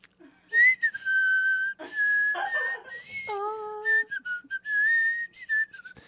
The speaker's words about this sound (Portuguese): Mas então, ele falou de assobiar sorrindo, que é assim, ó. Peraí.